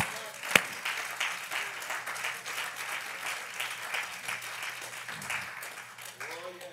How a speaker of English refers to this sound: Come on, clap your hands.